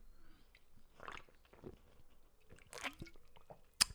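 sipping an energy drink

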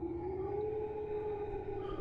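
eerie howling

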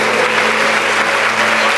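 audience applauding

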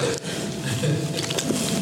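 sip of water

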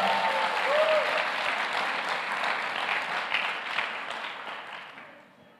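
audience applauding

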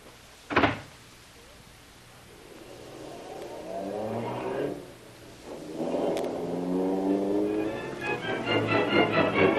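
car driving off

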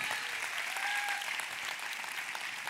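applause

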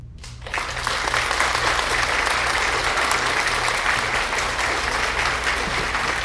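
audience applause

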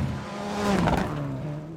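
rally car engine revving

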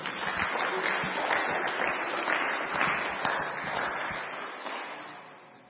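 audience clapping applause

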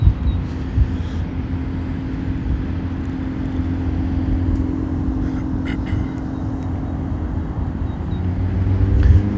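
road traffic passing outside

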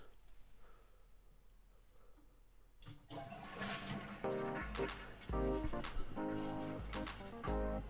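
toilet flushing

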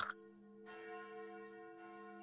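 church bell ringing

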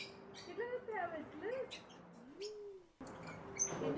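rose-ringed parakeets calling

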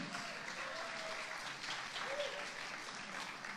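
audience clapping

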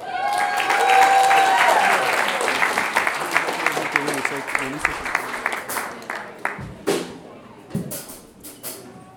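audience applause welcoming performer

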